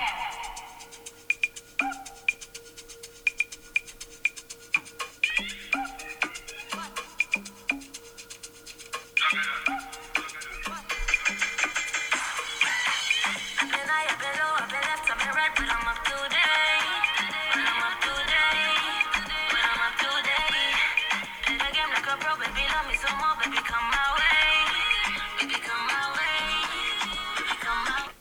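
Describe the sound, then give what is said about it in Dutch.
The opening afrobeats track of an album starts with sparse, plucky percussion and light melodic hits, then swells after a few seconds into a fuller, steady groove with bright layered instrumentation. “Eh, ik zal zo eventjes het eerste stukje laten horen.”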